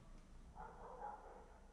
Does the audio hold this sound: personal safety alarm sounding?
no